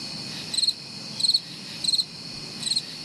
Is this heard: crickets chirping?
yes